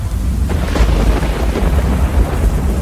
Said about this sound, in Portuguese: Diz aí que naquela região que não chovia mais de seis anos, caiu um toró justamente naquela hora.